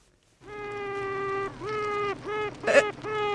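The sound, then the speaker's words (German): A newly hatched queen bee's tooting warning signal, sent by the first queen to hatch: one long, buzzy, horn-like tone followed by four shorter toots in quick succession, with no talking. “Und deshalb sendet die erste nach dem Schlüpfen ein Warnsignal und es klingt so.”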